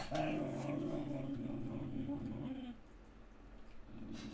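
A dog growls in a low, rumbling, sustained stretch for a few seconds, stops, then starts another short growl at the end. No one speaks.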